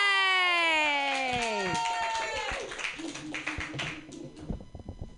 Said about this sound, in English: That is an appropriate amount of clapping.